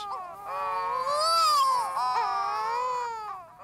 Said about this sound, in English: Some early sailors feared this ungodly wailing meant they had been tricked ashore at the gates of hell itself, when in truth, they stood shuddering among courting pairs of seabirds called wedge tailed shearwaters.